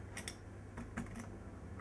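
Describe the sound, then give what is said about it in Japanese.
The flip calendar flaps of a Tokyo Tower souvenir model, which also holds a thermometer and a pen stand, click over in a handful of sharp plastic ticks, two quick pairs spaced irregularly, fairly quiet against a faint low hum. “あとこのパタパタですよパタパタこの、えー、よいしょはいこのペン立て、よいしょカレンダー”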